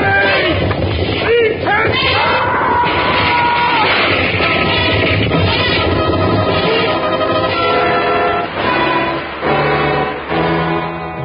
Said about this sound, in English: Everything was swept away by the onrush of the elephants as they fought their way back into the jungle.